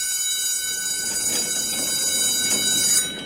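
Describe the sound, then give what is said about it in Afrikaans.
A school bell rings at the end of the school day, a shrill, steady metallic ringing that holds for about three seconds before cutting off, with no voices. “Hy dink nog wat om vir juffrou te sê toe die skoolklok lui.”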